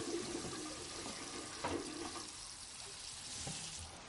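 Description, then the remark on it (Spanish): A chain-pull toilet in a home bathroom flushes with a steady, loud rush of water lasting several seconds, gurgling slightly as it runs and easing off a little toward the end. No one speaks. “Mira la puerta y tira de la cadena.”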